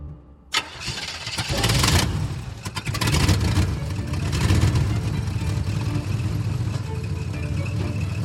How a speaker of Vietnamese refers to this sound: Xe tải chở người đàn ông đội mũ phớt đi mất